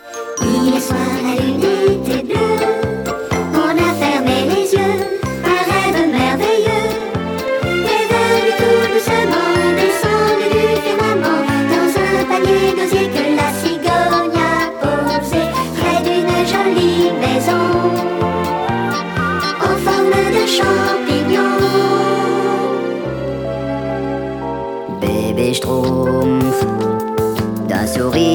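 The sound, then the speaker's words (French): A bright, bouncy instrumental intro to a Smurfs cartoon theme, released on a 45 rpm record in December 1984 but not used on television, with chiming, tinkling melody over a steady beat, loud, with a short held pause before the music picks up again near the end. “C'est le seul qui a droit à son propre générique édité en disque 45 tours, mais qui ne sera pas utilisé à la télévision.”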